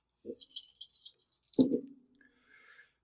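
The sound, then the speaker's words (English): Three dice rattle briskly in a cupped hand for about a second, then clatter onto a hard surface with a sharp impact and a short tumbling skitter before settling. Clear, no voices. “You're going to get it, I would say, all three dice because you uh, are you, you are experienced, and you are an occultist.”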